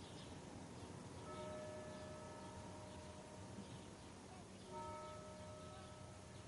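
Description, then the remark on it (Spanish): Church tower bells beside a hotel chime the hour twice in the morning at a slow, measured pace, each resonant strike ringing out and fading, fairly soft against a steady background hum. “A la mañana siguiente, las horas suenan en la torre de la iglesia vecina al hotel.”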